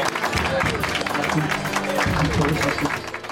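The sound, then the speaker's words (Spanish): A crowd applauds steadily to welcome guests on a program, with dense, continuous clapping that holds at a fairly loud, even level throughout, mixed with a murmur of voices underneath. “Un aplauso.”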